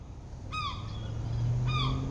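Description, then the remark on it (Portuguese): Two harsh, descending seagull cries about a second apart, fairly clear over a steady low rumble of background noise. “Um, um grito de uma gaivota.”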